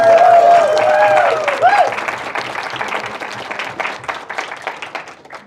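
An audience bursts into loud, dense applause, with a sustained whistle-like cheer riding over the first two seconds, then the clapping thins out and gradually tapers off.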